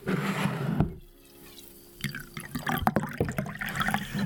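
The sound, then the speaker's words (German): Water is poured into a glass, a brief rush followed by a quieter stretch, then a series of splashy trickles and drips against a hard vessel, with no voices. “Ich brauche noch ein bisschen Wasser für den.”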